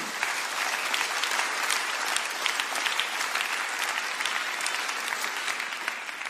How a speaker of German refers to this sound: Vielleicht können wir ihm an dieser Stelle mal einen mächtigen Applaus geben.